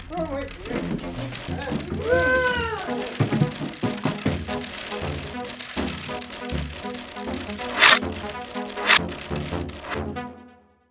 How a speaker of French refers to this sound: Il passait le tournant. Elle le voyait. Le renard se précipita dans la chambre. Qu'est-ce qu'il y a euh, Il y a un gros train juste au tournant.